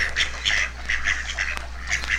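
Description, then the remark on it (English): A flock of ducks and other waterfowl quacking repeatedly in short, nasal bursts, several birds calling over one another, with a steady low hum underneath and no talking, played from the record Dawn in a Duck Blind. “all of the waterfowl that we are hearing right now.”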